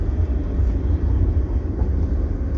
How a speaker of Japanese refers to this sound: トロッコあトロッコなのかなこれしたらあもうこれトロッコなんだトロッコが5キロで左に線路がある